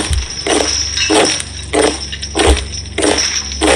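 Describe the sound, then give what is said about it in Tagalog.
Heavy metal chain clinking and rattling in repeated bursts, about five jangling pulses at a steady walking rhythm, fairly loud, with no voices, heard around two in the morning. “Tapos may kasama pa itong tunog ng tanigala o yung kadena.”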